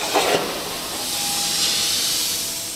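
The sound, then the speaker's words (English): A computer-driven plasma cutter, operated by Sitka High career and technical education teacher Mike Vieira in a high school shop class, hisses in a steady, bright rush of noise with a faint thin whine running through it, starting with a couple of brief sputters and then holding evenly. “Mike Vieira is operating a $30,000 plasma cutter”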